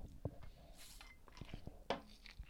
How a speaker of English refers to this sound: Let me take a sip for this